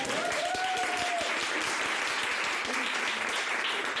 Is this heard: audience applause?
yes